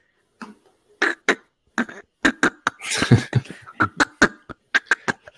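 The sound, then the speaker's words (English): An underwater fish recording: a rapid, irregular series of grunting, knocking pulses, some clustered into a raspy burst midway. Fairly loud, with no talking. “fish don't make noises. Well, maybe yeah. they do underwater.”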